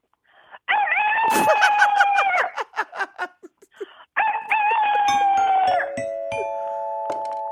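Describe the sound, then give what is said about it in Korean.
A person loudly imitates a rooster's crow twice, each a long wavering cock-a-doodle-doo with choppy clucking bursts between them, with no talking. “네, 닭소리 하겠습니다. 닭소리.”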